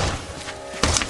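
A heavy, solid thud of a kick against a sturdy door protected by a Door Sentinel reinforcement device, one loud impact with a short rumble after, and no sound of wood splintering or the door giving way.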